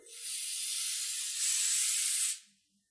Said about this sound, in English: This is compressed air used for cleaning a computer keyboard